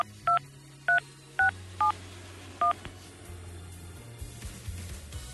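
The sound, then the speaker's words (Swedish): A phone number is dialed to call a woman on the show Äntligen Morgon: five crisp two-tone keypad beeps in an uneven rhythm, followed by a low hum and faint clicks on the line. “är du beredd att vi ska ringa en tjej här nu då?”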